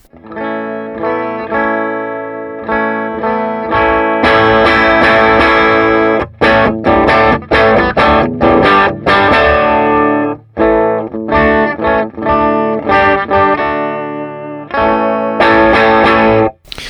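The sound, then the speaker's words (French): An electric guitar riff played alone on a Gretsch guitar with heavy strings through an ordinary amp, clean tone, strings picked hard so each note attacks sharply, with a few short pauses between loud, dense phrases. “Et c'est en fait un son clair que j'attaque très fort. D'ailleurs, on va écouter le, son clair d'origine.”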